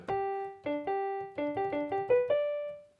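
A short classical serenade phrase plays at standard modern pitch: about ten crisp, keyboard-like notes in a lively rising-and-falling pattern, each decaying quickly, with no talking.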